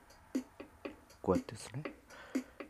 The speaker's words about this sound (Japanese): 8ビートですねでこれでテンポをこう速くしたりとかですね遅くしたりとかできるわけですよねこうやってこうでリズムこういろいろと変えられる感じでですね